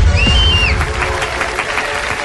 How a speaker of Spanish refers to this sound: Por último, reciban con un fuerte aplauso al favorito de multitudes, al candidato que cuando dice no es no, el senador Uribe.